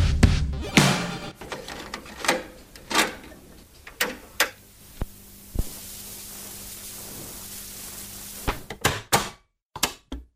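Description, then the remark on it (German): A cassette player's mechanism clicks and clunks in a series of sharp mechanical knocks over a steady hiss, with irregular pauses between the thumps and a quick cluster near the end. “Wann, wann hast du das Geräusch zum letzten Mal gehört?”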